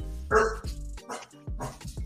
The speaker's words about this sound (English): oh, we got a dog, we got a dog appearance, baby, here on TSP.